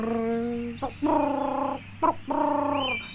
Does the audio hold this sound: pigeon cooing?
yes